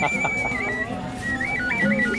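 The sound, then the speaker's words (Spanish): A clay ocarina whistle plays a thin, pure high tone, holding one note and then stepping to a few short notes, with murmuring voices and bustling noise in the background. “Ah, una ocarina. Una ocarina. Sí, son silbatos.”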